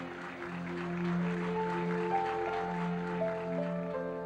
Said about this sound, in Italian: È la radio a dare in Italia la notizia della vittoria. L'intero Parlamento applaude.